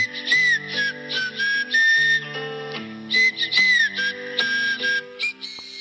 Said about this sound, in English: That's my alarm. It's the only alarm that I've found that does not piss me off.